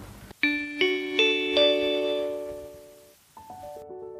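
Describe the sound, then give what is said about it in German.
A gong-like chime rings out in four quick, evenly spaced strikes whose tones linger and fade together, followed after a short pause by a softer pair of lower notes. “Das war der Gong für das Ende dieser Stunde Bildungsblick.”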